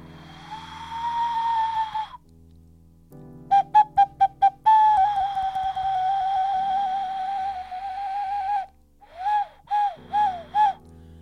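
A short ocarina tune played as a break before an advert, with no talking: a held opening note, a quick run of five staccato notes, a long sustained tone, then four bouncy notes to finish.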